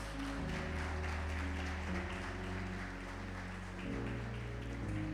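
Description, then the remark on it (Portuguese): A crowd claps steadily for several seconds as praise to the Lord Jesus, a dense, continuous wash of applause over sustained keyboard chords that shift partway through, with no one speaking. “Se você crê nisso, dá uma salva de palmas ao Senhor Jesus.”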